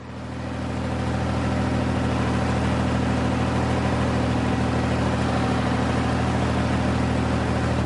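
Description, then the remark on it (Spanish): A heavy tractor engine rumbles steadily for the whole stretch as the tractor is driven, plowing the land: a low, even drone at a constant pace, with no voices. “Christophe conduce un tractor.”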